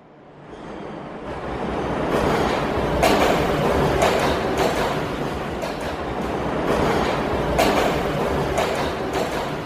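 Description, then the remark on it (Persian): A metro train rumbles steadily along the rails, with rhythmic clicking of wheels over track joints and a broad, continuous roar that swells slightly as it runs, fairly loud. “خوشحالیم که از مترو برای رفت آمد استفاده میکنیم حامیان همیشگی طبیعت و محیط زیست باشیم بریم بشنویم تو متروهای دنیا چه خبره”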